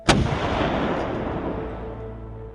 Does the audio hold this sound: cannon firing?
yes